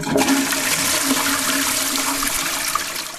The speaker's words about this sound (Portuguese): Os mais recentes vasos são de caixa acoplada com dois botões de acionamento para liberar água de meia caixa, no caso 3 litros de água, ou a caixa inteira com 6 litros.